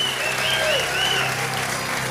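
Steady audience applause given to the glory of Jesus during a sermon, a dense wash of many hands clapping at once, loud and continuous with no voices standing out.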